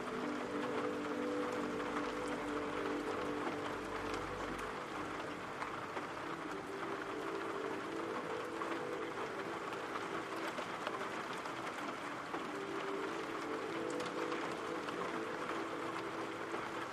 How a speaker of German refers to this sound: Stell dir vor, gleichmäßiger Regen prasselt ganz sanft gegen dein Fenster. bist hier drinnen. Es ist warm und gemütlich. Und du musst gerade gar nichts tun. Du darfst hier entspannen und den Regengeräuschen lauschen.